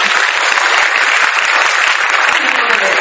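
Steady, dense audience applause fills the whole moment, many hands clapping loudly and evenly without pause, a broad crackling wash of sound with no voices standing out.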